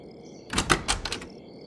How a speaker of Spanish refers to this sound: Al terminar de cenar, nuevamente llamaron a la puerta y los golpes no cesaron hasta que mi madre posó su mano sobre la perilla.